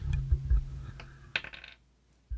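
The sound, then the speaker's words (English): Dice clatter across a hard table in a quick burst of sharp, bright clicks that settle into a few lighter ticks, with a low rumble underneath and no talking. “See, I usually roll with my right hand because I'm I'm right-handed.”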